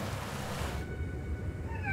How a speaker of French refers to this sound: a qu'une hâte, c'est ouvrir les fichiers et découvrir bah, qu'est-ce que les baleines ont chanté cette année.